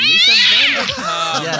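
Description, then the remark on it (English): A person gives a loud, drawn-out imitation of a cat's meow, a rising and falling yowl, followed by a few quick spoken words. “that sound is right. She's a, she is a fierce cat.”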